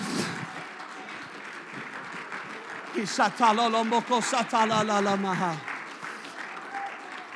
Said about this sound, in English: Oh, I wish if you believe that, you'd clap your hands and shout unto God.